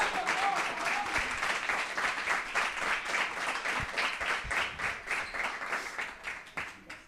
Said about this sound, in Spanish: Por favor, un fuerte aplauso con más energía. Vamos. Gracias.